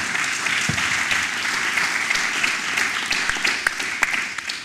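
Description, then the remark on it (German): Steady audience applause welcoming the head of the Klimabeirat office fills the whole stretch, a dense wash of many hands clapping at an even level with a few sharper individual claps standing out, and no voices. “Herzlich willkommen, Herr Brasch. Applaus”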